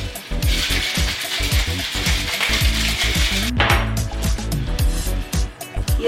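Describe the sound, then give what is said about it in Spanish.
Ice rattles hard and fast inside a cocktail shaker as a mezcalita is shaken with shaved ice, orange liqueur, natural syrup and lime juice, a loud, steady rhythmic clatter that carries on for several seconds without any talking. “Previamente escarchamos nuestra copa, le ponemos un adornito cookie, lo shakeamos”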